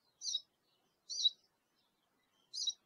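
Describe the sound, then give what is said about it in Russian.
A small bird chirps three times, each note short and high-pitched, spaced about a second apart. The calls sound clear, with silence between them and no one talking. “Ах ты, птичка какая, а, смотри.”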